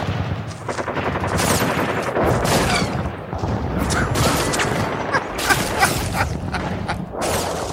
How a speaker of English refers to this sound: I think being awoken by gunshots every night